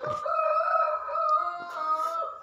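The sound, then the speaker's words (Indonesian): The neighbour's roosters behind the house crow at midnight in a long, drawn-out cock-a-doodle-doo that fills the whole moment, loud, the calls overlapping with no voices around them. “uh, eh, kayaknya bakalan jadi background deh soalnya ayam tetangga ayam belakang rumah ini, ini lagi berduet”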